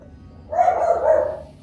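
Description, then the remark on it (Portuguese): A dog barks in a drawn-out, harsh burst lasting nearly a second, and another bark begins right at the end. Loud, with no talking over it. “E, pera aí, ô cachorro!”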